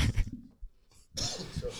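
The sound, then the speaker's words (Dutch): A few rough coughs: a short burst at first, a pause, then a longer, harsher coughing fit, moderately loud. “er ook iemand hoestsiroop bij zich?”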